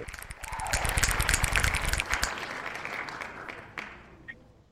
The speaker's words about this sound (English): A few f- finger snaps and hand claps for the for the yeah.